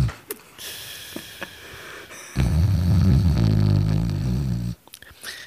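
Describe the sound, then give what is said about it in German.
A voice imitates one long, loud, rasping snore lasting a couple of seconds, mimicking a colleague who fell asleep and snored loudly during a concert. It is preceded by a few faint breathy sniffs and followed by quiet. “Da war einfach der Kollege, der das offenbar auch nicht auf dem Schirm hatte, wie lange wir rumsitzen, eingepennt und schnarchte derartig laut, dass wir uns wirklich genötigt fühlen, von beiden Seiten, der saß in der Mitte,”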